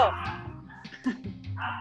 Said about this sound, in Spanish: ¡Ay, son mis perritos! Ahora tengo dos. Es que abrí un hotel para perros y ya tengo dos.